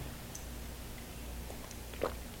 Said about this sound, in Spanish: Eso sí, previo buchito de café amargo para despertarme informativamente. Así que voy con este primer sorbito del día.